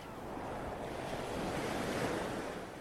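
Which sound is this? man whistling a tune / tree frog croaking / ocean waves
ocean waves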